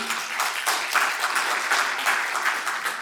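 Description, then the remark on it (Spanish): A church audience applauds a member who knew Hebrews 10:23 by heart, a dense, even wash of many hands clapping at once that holds at a fairly loud level for about three seconds, with no voices heard. “Hermano, un aplauso”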